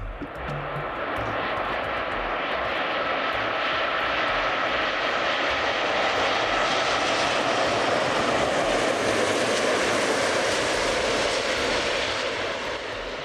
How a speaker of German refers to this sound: Also ich muss zugeben, dass dieser Sound in mir schon irgendwas auslöst. Also auch wenn es ziemlich laut ist und schrill, wenn so ein Flugzeug landet. Aber bei mir kommt dann Reiselust auf, Sehnsucht nach fernen Reisezielen.